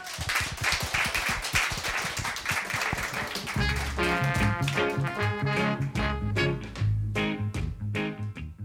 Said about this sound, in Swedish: Tusen tack tjejer, en applåd för dem.